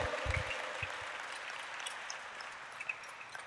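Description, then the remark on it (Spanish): An audience applauds steadily at a moderate level during a sermon, a dense wash of clapping that holds evenly for a few seconds, with a few louder low thumps right at the start. “Alguien tiene que decir amén a eso, alguien tiene que hacer ruido, alguien tiene que chiflar o aplaudir o hacer algo.”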